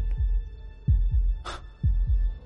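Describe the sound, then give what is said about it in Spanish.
A muffled, rapid heartbeat thumps in low, dull double beats, paired lub-dub pulses repeating quickly under a faint steady hum, with one brief airy swish in the middle. “Era un resonar apagado y presuroso, un sonido como el que podría hacer un reloj envuelto en algodón.”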